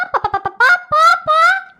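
A hen named Victoria squawks: a quick run of four or five clucks, then three longer, strained cackling calls, loud and alone with no talking.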